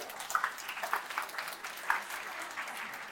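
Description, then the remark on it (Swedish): An audience at Bildningsbaren, Malmö University's popular-science talk event, claps steadily for a few seconds. It is a dense, even patter of many hands with a few sharper individual claps standing out, and no voices over it. “Wow, en applåd!”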